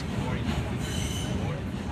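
A subway train rumbling along with a steady low roar, its wheels squealing in high metallic tones over the continuous noise, close and loud throughout.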